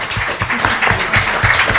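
A burst of audience applause, dense overlapping claps forming a steady, fairly loud wash of noise for a couple of seconds, with no clear voices over it.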